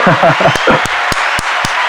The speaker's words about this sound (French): Là, mon gars, le monde t'applaudit. C'est validé.